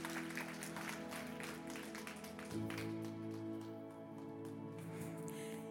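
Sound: audience applause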